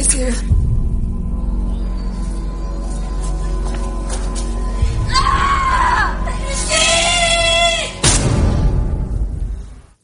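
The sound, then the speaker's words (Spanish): Shrill, drawn-out screams from a horror film rise over a low, droning soundtrack, coming in overlapping bursts midway through before an abrupt cut and a loud, rumbling finish. “Bueno, por los gritos, yo, no, se están pasando bien.”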